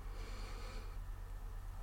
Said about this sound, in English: And sometimes it can be even as simple as just taking a deep breath, you know, breathing in through your nose